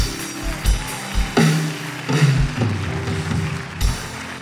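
An audience bursts into sustained applause for God at a preacher's call, a dense crackle of many hands clapping for several seconds, with a few low thumps and murmuring voices mixed in.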